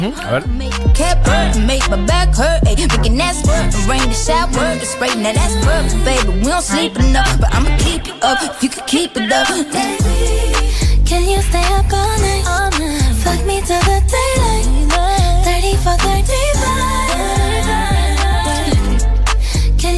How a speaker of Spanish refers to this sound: Ahora estamos escuchando el remix que está de fondo